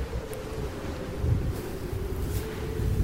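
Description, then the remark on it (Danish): Cold wind gusts buffet the microphone in a continuous low rumble, swelling slightly at moments, with a faint steady hum running underneath and no voices. “Ja, så altså, jeg fik lige en kold, kold vind i nakken.”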